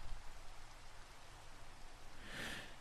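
Steady, soft rain falling continuously, a dense hiss of drops with no voices, holding even throughout and swelling slightly brighter near the end.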